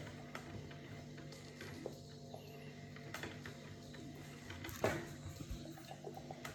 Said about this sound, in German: Und jetzt schalten wir einfach mal den, die Maschine an. So, und jetzt müsste eigentlich was passieren. So, jetzt machst den Rest weg. Oh, kaum gekleckert. Gar nicht eigentlich. So gut. Kaffeemaschine läuft, wie ihr hört.